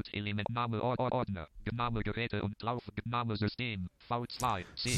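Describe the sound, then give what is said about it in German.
The NVDA screen reader's synthetic voice speaks quickly and continuously in short bursts on a Windows computer, fairly loud, with brief pauses between phrases and nothing else underneath. “Ihr hört im Hintergrund den NVDA.”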